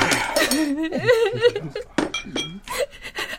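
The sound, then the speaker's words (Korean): Spoons drop and clink sharply against dishes as diners eating warm soup in a 36-year-old restaurant let them fall, a couple of bright clatters standing out, while voices make wavering, laugh-like or sobbing sounds around them. “그렇게 식사를 시작한 지 얼마 되지 않아 따뜻한 국물을 삼키던 몇몇이 숟가락을 떨어뜨리고 소리는 흐느끼기 시작했다.”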